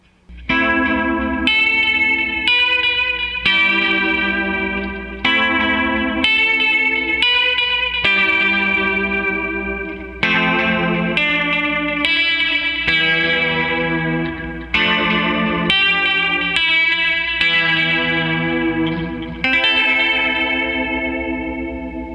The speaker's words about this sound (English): I also have, um, lately I've been using um, this vibrato effect, which sounds really cool. With like a delay.